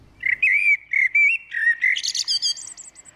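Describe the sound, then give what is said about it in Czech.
A common blackbird sings a clear, fluting phrase of mellow whistled notes, rising into a higher, twittering flourish at the end. Fairly loud, with no other sounds. “A opravdu ti kosy jsou, jsou výborní, výborní zpěváci a často zpívají právě časně ráno, kdy ještě to není ani moc hluku a ani nespívají jiní ptáci, takže ten kos je potom slyšet opravdu.”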